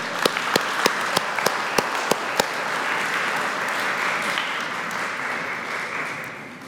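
An audience breaks into warm applause as a man and his family are invited up for his installation, a steady wash of many hands clapping for several seconds, with a few sharp, louder claps standing out early before it gradually tapers off.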